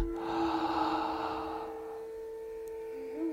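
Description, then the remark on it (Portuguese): A long, airy breath drawn in through the mouth, lasting under two seconds and fading out, clear over a soft, steady background hum, with no talking. “E agora, a hora peça, começa a inspirar pela boca.”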